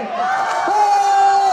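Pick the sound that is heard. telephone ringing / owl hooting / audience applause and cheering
audience applause and cheering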